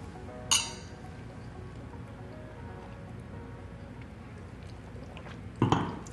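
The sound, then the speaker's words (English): Glasses clink together in a toast to marriage, a bright ringing chime near the start and another knock of glass near the end, over a low steady background hum with no talking. “So, grab your favorite glass. Today, we're toasting to marriage.”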